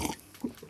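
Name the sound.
slurping coffee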